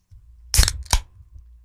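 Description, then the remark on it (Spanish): A peach juice container being opened: two sharp, crackling clicks about a third of a second apart over a low rumble, with no talking. No drinking sounds stand out. “Es un jugo de melocotón.”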